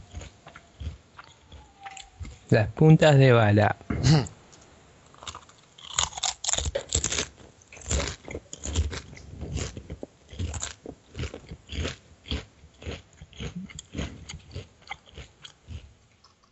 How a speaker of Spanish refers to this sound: Estoy comiendo Pringles.